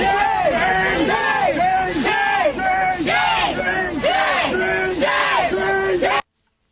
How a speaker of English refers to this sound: They won't let him leave. They're screaming shame at him like it's a really bad takeoff of Game of Thrones.